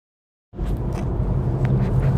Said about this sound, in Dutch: ja, ik neem deze voice note op vanuit de auto. Even een andere setting. Daardoor ook wat achtergrondgeluiden die je normaal niet hoort. Ik hoop dat het niet te storend is.